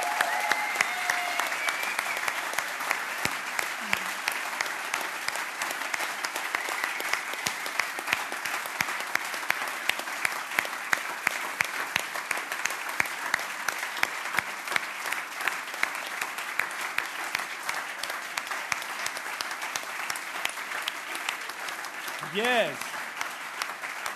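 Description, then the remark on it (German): Sustained applause from an audience, a dense steady clatter of many hands clapping for over twenty seconds, with a few brief whoops or calls rising near the end. “Also finde ich gewaltig, euch möchte ich gerne mal jetzt einen Applaus geben, weil ihr seit Wochen hier Gas gebt.”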